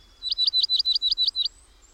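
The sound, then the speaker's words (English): A dark-eyed junco chirps a quick, even series of about nine identical high, bright notes, clear, then falls silent. No one speaks. “Dear Snowbird, Junco, yes, you with the dark eyes, dark eyed Junco.”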